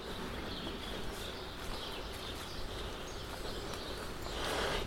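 A steady chorus of many small birds sitting in a tree around the corner, chirping and twittering together, fairly quiet, over a constant low outdoor rumble, with no one speaking.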